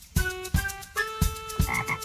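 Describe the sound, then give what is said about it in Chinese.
A frog jumping on a piece of wood croaks in four rhythmic, evenly spaced bursts, each a resonant, buzzing call with clear harmonic tones, moderately loud with no voices present. “在木头上跳的是什么？对了，那是青蛙。”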